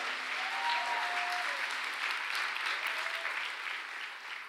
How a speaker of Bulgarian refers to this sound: О, хайде, ръкопляска, като че наистина вярваш.